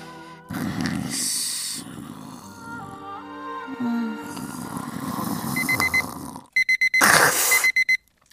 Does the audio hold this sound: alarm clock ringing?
yes